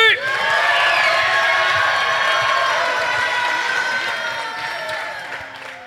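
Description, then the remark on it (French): A large audience applauds and cheers loudly for the Infinity Space Providers project at the end of its pitch, a dense roar of clapping with shouts and whoops mixed in, holding strong for several seconds before easing off slightly at the end. “Heureusement que vous l'avez applaudi, sinon il me, serait tombé dessus et j'étais pas bien.”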